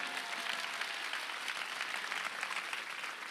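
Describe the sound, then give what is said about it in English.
An audience claps steadily, a dense, even wash of many hands with no pauses, fairly loud throughout and with no voices on top. “You should clap your hands.”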